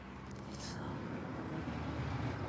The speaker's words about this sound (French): Petite voiture, voilà.